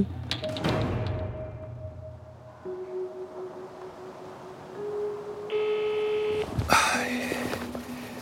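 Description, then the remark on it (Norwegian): An electronic alarm sounds with sustained tones that shift in pitch, moderately loud, ending in a sudden noisy burst followed by another steady tone. “En alarm er en alarm.”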